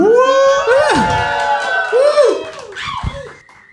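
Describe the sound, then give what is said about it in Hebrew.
A live audience at a ten o'clock evening show, asked to make noise, cheers and whoops loudly, with many overlapping voices and rising shouts that swell and then fade over a few seconds. “ובעצם הרצועה הזאת, לכל המאזינים והמאזינות שלנו כרגע, שלא יודעים שאנחנו כאן לייב, זאת רצועה שקורית באוזן בשעה עשר בערב מול קהל חי. תנו רעש, תנו...”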